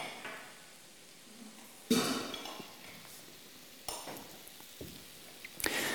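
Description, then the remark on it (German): Steady sizzling of food cooking over a fire, a crackling hiss that swells in sudden bursts every couple of seconds, fairly soft, with no voices. “Das Geräusch stimmt schon mal, der Duft vielleicht auch.”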